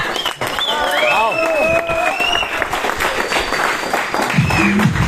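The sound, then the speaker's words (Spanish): An audience applauds steadily and loudly to welcome a guest, a dense wash of clapping with voices and whoops rising over it early on and a low tone near the end. “Ok, ayúdame a recibir con fuertes panes a nuestro diamante una cortita.”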